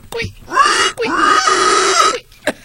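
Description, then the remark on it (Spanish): A person voices a pig imitation: a short grunt, then two long, nasal, squealing grunts with a brief break between them, and a final quick snort, loud. “Hazle como puerquito.”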